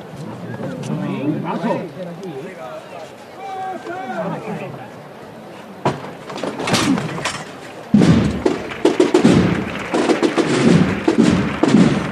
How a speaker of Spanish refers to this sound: vamos a escuchar desde la trasera, debajo del manto de esta Virgen de Guadalupe. Levanta que va a tocar el martillo la hija del imaginero quien diera forma, quien diera vida a esta talla de la Virgen de Guadalupe.